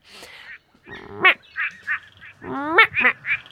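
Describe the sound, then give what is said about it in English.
A person's voice mimics the call of the quacking frog in southwest Western Australia, trying to get the frogs to call back, giving two bursts of nasal, rising quacks, each followed by shorter clipped quacks, fairly loud. “You know, I heard that quacking frogs will respond to copies of their call. So maybe if I quack, they will quack back.”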